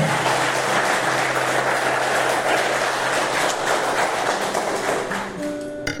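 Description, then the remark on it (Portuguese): A large crowd applauds for the Holy Spirit, clapping continuously in a dense, roaring wave of applause that holds steady for several seconds, then thins out at the end as soft sustained musical tones emerge underneath. “Então, por favor, meu irmão, se você acredita nessa palavra, dê uma salva de palmas para o Espírito Santo agora.”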